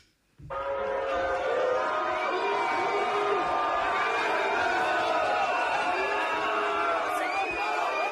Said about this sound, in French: Et en troisième place, sur le podium On a le Barin, en Alsace. À Célesta, on note une performance de huée extrêmement impressionnante.